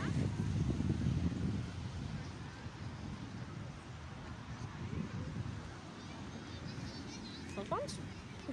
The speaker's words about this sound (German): Ich bin gerade noch am Meer am ja, Urlaub in Holland. Ihr hört es ja hoffentlich. Hört ihr Ich kann noch mal ein bisschen mehr ans, näher ans Meer gehen.